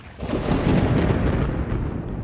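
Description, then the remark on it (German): A low, rolling rumble of distant thunder from a storm swells and lingers, with a soft hiss of rain dripping onto tree leaves outdoors and no voices. “Ne, wenn draußen der Regen auf die Blätter der Bäume tröpfelt und in der Ferne grummelt und donnert und man gemütlich zu Hause im Bettchen liegt, ist doch schön.”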